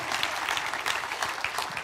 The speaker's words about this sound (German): einen kleinen Applaus für deinen Namen?